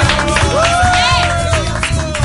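Loud, steady applause from a group, with dense clapping throughout and a few rising and falling whoops or cheers riding over it.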